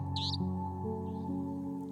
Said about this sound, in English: Jerdon's nightjars, Indian nightjars, savannah nightjars, call with their mechanical beats, and they're punctuated by hoots and screeches of owls.